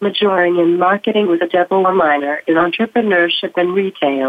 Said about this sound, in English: What you are hearing is my augmentative communication device called a Tobii Dynavox